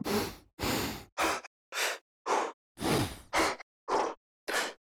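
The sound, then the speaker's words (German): A series of nine short solo breathing vocal samples for music production, sharp inhales and exhales with gasp-like and sighing qualities, separated by brief silences in an uneven rhythm, with no speech. “Vom Schreien gehen wir zum Atmen und zwar zu den Solo-Shorts.”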